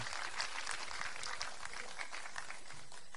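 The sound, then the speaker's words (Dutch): An audience applauds steadily for teenagers who played in a band during a worship service, a dense crackle of many hands clapping at an even level throughout, with no voices standing out. “En uh, geef ze trouwens een applaus, ze doen het echt hartstikke goed.”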